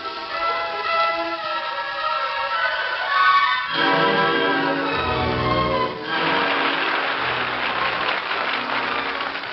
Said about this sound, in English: On applaudissait et pourtant il n'y avait personne dans la salle. Les applaudissements devenaient assourdissants. On aurait dit une fusillade.